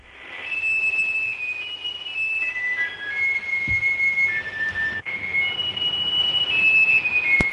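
A thin, beeping electronic melody of the party anthem "The Internationale", transmitted by radio from aboard an artificial satellite of the Moon. High pure tones step from note to note under a constant wash of static hiss, with a brief click partway through.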